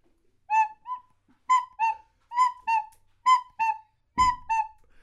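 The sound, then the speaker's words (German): A recorder plays the two-note cuckoo call five times in a steady falling pattern, each pair clear and breathy, alone, with a brief knock near the end. “Und den Kuckuck kann ich.”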